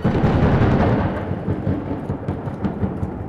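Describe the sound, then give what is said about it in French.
A loud thunderclap from a lightning strike crashes in at once, then rolls on as a heavy, rumbling roar that slowly fades while staying deep and dense throughout. “C'est alors qu'un éclair de feu zébra la pièce.”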